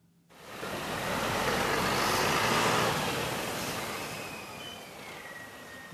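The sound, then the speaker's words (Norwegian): A large bus rumbles past at a bus station in the Serbian town of Subotica, near the border with Hungary, its broad engine and road noise swelling over a couple of seconds and then easing off, with a faint high whine threading through the steady background din. “Busser kommer og går på stasjonen i den serbiske byen Subotica, nær grensa til Ungarn.”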